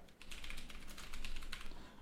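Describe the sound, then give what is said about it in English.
Rapid keystrokes clatter on a computer keyboard, a steady stream of crisp clicks over about two seconds with a faint low hum underneath and no voices. “I forgot to enable the keyboard.”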